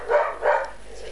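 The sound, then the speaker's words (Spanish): Dogs bark twice in quick succession, two short, moderately loud yaps heard clearly with no one talking over them. “Em, no tengo ninguna perra de Acuario, no sé por qué están, diciendo, están gritando ahora.”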